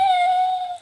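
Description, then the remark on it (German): A single sustained eagle owl call, one steady tonal hoot that holds for nearly a second before fading out, fairly loud with no talking around it. “Was war das? Das war ein Uhu.”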